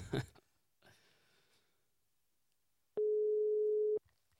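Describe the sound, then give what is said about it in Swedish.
A single steady, one-second ringback tone sounds loudly on an outgoing phone call, preceded by faint rustling and a soft thump, then quiet. “Så att vi eh, testar och ringer.”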